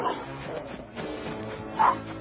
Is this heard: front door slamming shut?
no